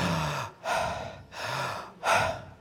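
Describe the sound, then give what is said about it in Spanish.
Slow, deliberate breaths drawn in and let out, four broad airy rushes alternating in a steady rhythm with brief pauses between, no talking; the breathing is done to sound the two Hebrew consonants of the name 'I am'. “esa respiración es yo soy.”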